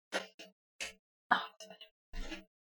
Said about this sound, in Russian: не умирай. Я не умираю, я зеваю.